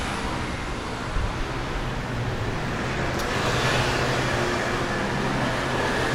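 A loud, continuous roar of dense traffic on a city boulevard in Paris, engines and tires blending into a steady wash of noise with no pauses, unbroken throughout.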